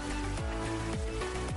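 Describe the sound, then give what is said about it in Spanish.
A cell phone notification chimes with a repeating electronic melody, its bright tones swooping downward about three times in quick succession. It sounds clear, with no talking over it. “Ay, perdón, ese fue mi celular.”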